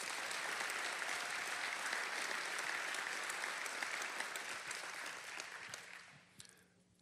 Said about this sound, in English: Many of those are here tonight. Ladies and gentlemen, give them a round of applause.